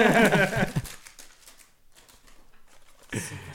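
Crinkly plastic rustling as a Backpack Buddies package is opened, starting with a loud burst, then softer intermittent crackles and a final sharp rustle. A voice may briefly overlap at the start.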